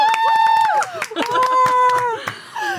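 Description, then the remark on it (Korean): A group gives a celebratory "dolphin applause", clapping quickly and steadily while several voices let out long, high-pitched squealing cheers, loud for a few seconds. “돌고래 박수!”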